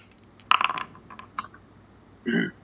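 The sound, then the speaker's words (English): A quick flurry of keystrokes on a computer keyboard, followed by a few scattered taps and then a duller, heavier clack near the end. Fairly quiet, with no one talking. “So I'm just already at the keyboard, you know.”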